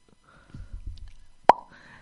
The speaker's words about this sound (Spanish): Ya está, ya se acaba esta sección. Vale. Vale. Eh, ahora, mm, sonido de sección y yo digo fin de sección.